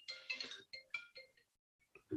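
A mobile phone rings at half past seven with a bright electronic melody of short repeated tonal bursts, broken by a brief pause before a few more notes and a low sound at the end.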